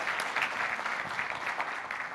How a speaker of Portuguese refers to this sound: Um aplauso também.